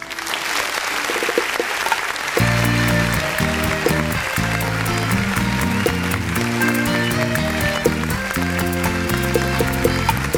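A song opens over a wash of applause, then a full band kicks in with a bouncing bass line and busy, crisp percussion, playing loudly and steadily to the end.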